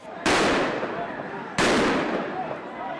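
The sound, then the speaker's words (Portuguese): Two loud, sharp gunshots fired by National Police agents during protests in Luanda, Angola ring out about a second and a half apart. Each is followed by a long, rolling echo that fades slowly, as if fired outdoors. “Tiros dados por agentes da Polícia Nacional.”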